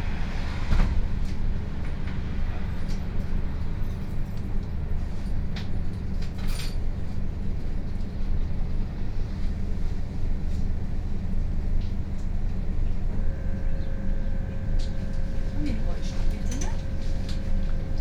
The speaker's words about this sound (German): Die Straßenbahnfahrer wechseln an der Stauffenbergstraße.